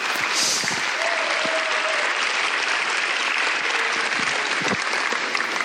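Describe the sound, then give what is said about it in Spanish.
An audience applauds loudly, a dense, steady wash of many hands clapping that holds at full strength for the whole stretch, with a faint voice or tone rising briefly underneath. “Apláudale fuerte.”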